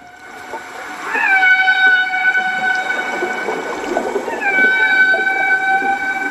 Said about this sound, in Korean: 이게요, 지능이 아주 높다는 돌고래들 소리입니다. 돌고래 소리.